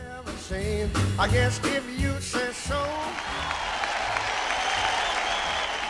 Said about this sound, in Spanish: Así que aplauso, medalla y beso para ese momento.